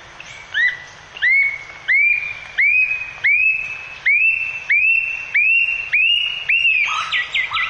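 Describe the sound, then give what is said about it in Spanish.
A bird sings a series of about ten clear, rising whistled notes at an even, steady pace, each bright and loud, ending with a quicker, buzzier flourish. No talking. “me podrían decir el número de notas exactas que cada frase del ave tuvo sin necesidad de estar pensándolo mucho.”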